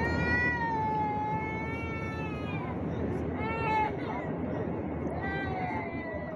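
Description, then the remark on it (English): A child right in front of the recorder screams in long, shrill, wavering wails, three drawn-out bursts, over a steady low roar of airplane cabin noise, recorded on a phone in a pocket. “like these kids be cutting up”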